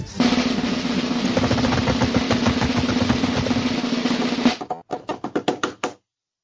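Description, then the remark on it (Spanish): A loud, rapid drum roll, played before the announcement of the winner of the night's first prize, rumbles steadily for about four seconds, then breaks into a quick run of roughly eight separate, evenly spaced drum hits before stopping. No voices. “Dadas las indicaciones y dados los nominados, el ganador al primer premio de esta noche es, por favor, los redobles.”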